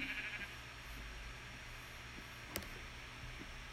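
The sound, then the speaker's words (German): A short, faint sheep bleat at the start, over a steady hiss of background noise, followed by a single sharp click and then only low ambient rumble. “Ey, gut, dass der Wolf das nicht gesehen hat, das Schaf.”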